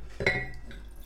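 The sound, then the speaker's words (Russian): White Riesling wine splashes briefly into a glass, a short liquid pour with a faint glassy ring that fades quickly, with no voices. “Тут есть ни хрена, мне меньше наливали, потому что оно нас, нагреется.”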